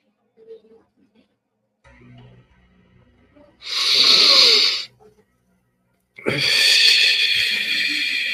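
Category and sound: human body sound, deep breath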